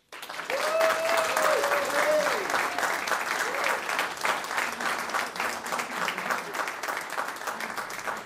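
A large audience applauds steadily for several seconds, dense clapping filling the space, with a few cheers or whistles rising over it near the start.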